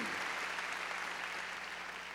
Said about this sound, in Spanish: A ver, démosle palmas fuertes a Él, gloria a Dios.